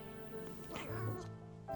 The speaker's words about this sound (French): Le chat ronronnait doucement, profitant de ces moments si rares où son maître pouvait lui servir de canapé chaud et moelleux sans partir à l'aventure on ne sait où, loin de lui.